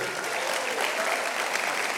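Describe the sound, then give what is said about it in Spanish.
Steady applause from an audience for the actors, a dense wash of many hands clapping at an even loudness throughout, with no voices standing out. “Un aplauso aquí para los actores.”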